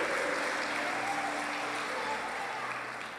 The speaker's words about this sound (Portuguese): Pode aplaudir porque Ele é digno.